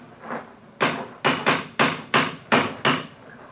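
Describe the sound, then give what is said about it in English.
A cane strikes a stone parapet seven times in quick succession, each blow a sharp, hard knock with a short ringing decay. The taps are loud and fairly evenly spaced, with no voices. “It's a hard knock.”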